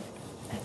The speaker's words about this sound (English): If you hear snoring in the background, that is not a person with me. That is my dog who is sleeping about five feet away from me.